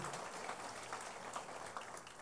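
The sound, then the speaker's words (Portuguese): A church audience gives applause to Jesus, clapping steadily in a dense, even wash of many hands, sustained throughout without pause and fairly soft overall, with no voices standing out. “Vamos dar um aplauso a Jesus, né?”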